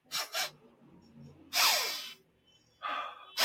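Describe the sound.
A person imitates sniffing the air with a series of sharp, noisy inhalations: two quick sniffs, then a longer drawn-in snuffle, followed by more sniffing, fairly loud.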